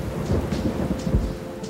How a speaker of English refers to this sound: rainy nights, and warm blankets.